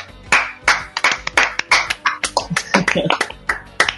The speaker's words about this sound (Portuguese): Primeiro de muito, uma salva de palmas.